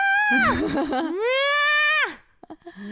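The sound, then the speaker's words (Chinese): A human voice imitates a pet cat that meows along while its owner sings: one long, drawn-out wavering cry that starts with a wobbly, strained onset, then glides upward into a sustained tone and falls off sharply at the end. “哦，他的猫哈，在他唱歌的时候会和声，他就是一直唱的时候，他就喵”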